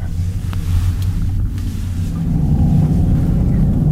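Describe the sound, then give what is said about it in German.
An electric car's synthetic drive sound hums steadily while driving, a loud, low droning tone that swells slightly toward the end over a bed of road rumble, with no talking. “Viel mehr Sinn macht so ein Sound natürlich beim Fahren.”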